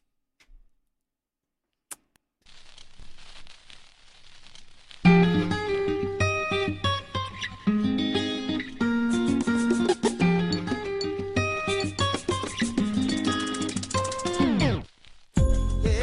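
A music track starts after a few quiet seconds, with a steady bass line and bright, layered melodic instruments playing a lively, rhythmic groove at full volume until a brief break near the end.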